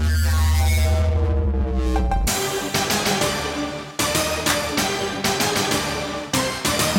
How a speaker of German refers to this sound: Der Orchestra-Hit hat sich auch irgendwann im Schlager breit gemacht